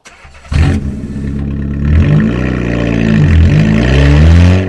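A car engine cranks and catches with a sudden loud burst, then settles into a steady hum that rises and dips as the car revs and pulls away, setting off on a sunny day from Chania eastward to Lasithi, Greece.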